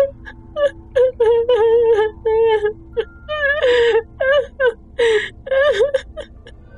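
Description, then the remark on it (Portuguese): A woman whimpers and cries in a string of high, quavering wails and choked sobs, broken into short rhythmic bursts with brief gasping pauses, fairly loud, with no other talking. “E ela vai se arrastando até os pés dele, assim, chorando.”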